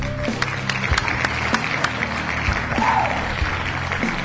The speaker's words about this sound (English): You know, it's a good show if I'm already applauding. I haven't even said anything or done anything applaud worthy, worthy yet, but I don't care.